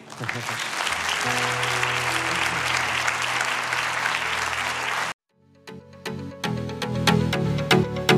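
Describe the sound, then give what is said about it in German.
An audience claps for God at the close of a bilingual English-German sermon, steady in a loud, dense wash of applause for about five seconds over a low sustained tone, then it cuts off abruptly and chordal keyboard music begins. “Let's give God a, a, a Lasst uns ihm uh, yeah, einen Applaus please.”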